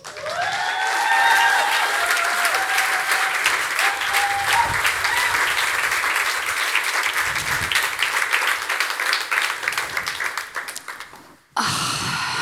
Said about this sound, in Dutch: lieve mensen, een applaus.